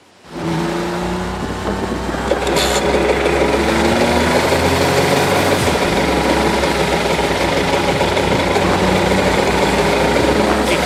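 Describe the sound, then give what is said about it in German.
A Fortschritt E930 engine runs loud after a quick start, holding a steady deep rumble with a droning tonal hum throughout, no voices over it. “Ich finde ja, der Fortschritt E930 klingt fast besser als der Porsche Turbo 930.”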